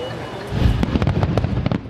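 Opening fireworks at a Republican political convention go off in a rapid string of sharp, crackling bangs, about half a dozen bursts over a steady low rumble, loud.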